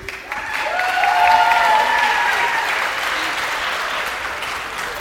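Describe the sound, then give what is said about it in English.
An audience claps steadily for the patients for about five seconds, a dense, even patter of many hands with a few cheers and whoops rising over it early on before the applause gradually thins slightly. “Let's hear it for our patients.”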